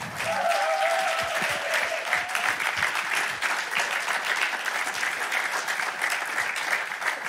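Sustained audience applause at ICF Mannheim welcoming a guest onto the stage, a dense, steady patter of many hands clapping at an even loudness, with a faint whistle or cheer rising briefly near the start.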